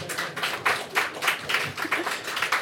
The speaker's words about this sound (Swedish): Applådera alla som tycker det är rimligt.